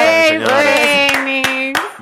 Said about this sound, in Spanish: Vamos a un fuerte aplauso.